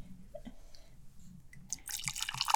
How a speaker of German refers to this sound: Ah, muss man kurz schwarz einschenken auf diesen Schock.